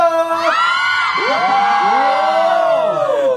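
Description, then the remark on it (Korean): A crowd of fans (STAY) outside the open studio cheers and shouts together, a dense wash of high, excited voices with rising and falling whoops layered over a steady, loud roar for the whole few seconds. “또 밖에 와주신 팬분들하고 네. 소통하실 수 있으니까 아, 그때 그때 그냥 하고 싶은 얘기 하셔도 좋고요.”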